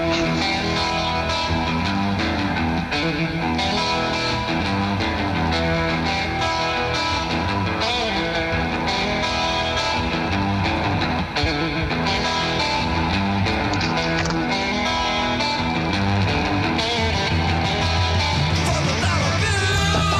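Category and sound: music break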